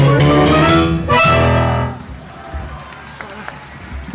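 A sustained sung phrase from a live tango performance with voice, piano, double bass and bandoneón ends abruptly, giving way to a dense, steady patter of audience applause with a few sharper claps. No voices are heard.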